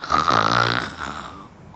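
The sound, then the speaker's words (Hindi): A person growls like a lion, a rough, raspy rumble with a throaty buzz that swells at the start, then slowly fades over nearly two seconds. “तो शेर ने अगल बगल पलट के देखा और गुर्राया”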